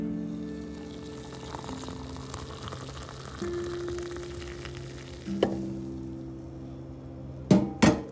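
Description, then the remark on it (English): Hot water heating in a small red teapot in the morning for a cup of Nescafe coffee: a steady hiss and low rumble with faint sustained tones, followed by two sharp metallic clinks near the end. No one speaks. “I love brewing hot, warm water every single morning for my delicious cup of Nescafe.”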